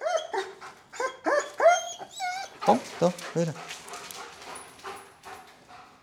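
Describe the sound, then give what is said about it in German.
The speaker's youngest dog barks in short, yelping bursts and whimpers in high, whining tones, while a person speaks a few words in between. “und jetzt gerade mein, mein jüngster Hund, das ist ein, ist ein derartiger Papi also der läuft mir auf Schritt und Tritt nachher, der lässt mich nicht aus den Augen.”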